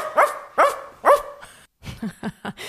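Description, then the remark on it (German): Thomas Anders mimics a dog barking: three loud barks in even succession, then four shorter, lower woofs in a quick run, with no other talking. “Also auf jeden Fall der Bella von Thomas Anders klang sehr interessant.”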